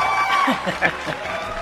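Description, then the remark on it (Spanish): A short burst of steady crowd applause, a dense clatter of clapping with some cheering and chuckling voices mixed in, holding at an even, moderate loudness throughout. “Y estamos entrando directamente y sin aviso a su mejor sección de este programa, aplaudida, que está, ¿qué le digo?”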